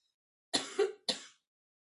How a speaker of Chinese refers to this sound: 咳嗽了。